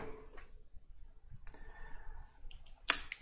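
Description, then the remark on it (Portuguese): Quiet scratching and tapping of a pen writing notes on paper, with a few short strokes and a sharper click near the end, no voices. “Sim, pessoal, aqui é no papel e caneta ainda.”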